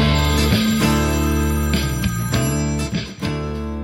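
A telephone rings loudly and continuously, its bright metallic tones pulsing in short bursts, with no voices present, before an automatic answering machine picks up.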